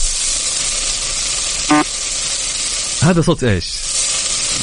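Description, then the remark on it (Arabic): Samosas frying in a lot of hot oil give a steady, dense sizzle that fills the whole recording, with a couple of short spoken phrases rising briefly above the crackling hiss. “في زيت كثير تقريبا ايه آه، بروستد بروستد؟ لا لا لا هو ما هو دجاج ولا لحم ولا ها وش؟ سمبوسه سمبوسه سمبوسه”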